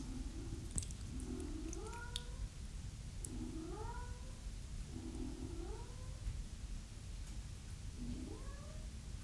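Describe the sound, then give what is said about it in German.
A cat named Mia meows repeatedly for attention, about four drawn-out rising-and-falling calls spaced a couple of seconds apart, over a steady low background hum with no one talking. “Jetzt maut es zum Beispiel Mia, weil sie Aufmerksamkeit möchte.”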